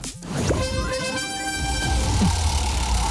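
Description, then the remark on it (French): A radio contest alert jingle: a short, bright horn-like toot rings out with strong harmonic tones, sustained for about a second before fading into a low rumbling background. “Dès que vous entendez cette alerte, vous prenez votre téléphone, vous vous inscrivez en envoyant le mot roue par SMS”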